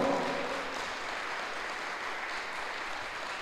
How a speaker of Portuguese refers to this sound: Você pode aplaudir bem forte ao Senhor.